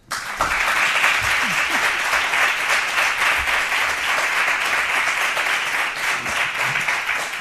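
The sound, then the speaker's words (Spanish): A live audience at a recording held away from the studio breaks into sustained applause, many hands clapping in a dense, steady wash of sound that holds strong for several seconds, with faint voices mixed in. “Antes de arrancar el podcast, voy a pedir para que la gente se haga una idea de lo bien acompañados que estamos, un aplauso.”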